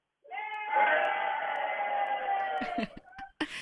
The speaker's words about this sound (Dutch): Nou, even alle enthousiastelingen op de achtergrond. Ik zal even laten roepen.